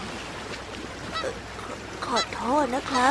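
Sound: geese honking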